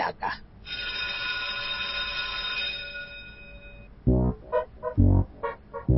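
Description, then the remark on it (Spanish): A bright electric school bell rings in a sustained metallic trill for about three seconds to officially start a new class, then cuts off as a person starts talking loudly. “que haga sonar el timbre para empezar oficialmente una nueva clase de la escuelita de los sábados de Toma”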